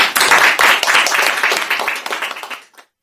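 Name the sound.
group clapping hands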